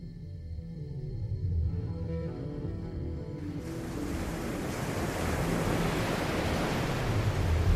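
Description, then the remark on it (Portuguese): Atlantic Ocean waves at night by the island of Florianópolis, Santa Catarina, wash and roar steadily, starting as a low rumble and swelling into a broad, hissing surf that grows louder, with a windy, open-air feel and no voices. “A noite cai na ilha catarinense e deriva no Oceano Atlântico”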